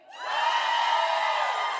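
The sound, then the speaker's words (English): A church crowd cheers loudly to show its preference for Chick fil A, a dense wall of shouts, whoops and yells that swells in quickly and holds steady at full volume for nearly two seconds. “All right, so be real loud for your preference Chick fil A.”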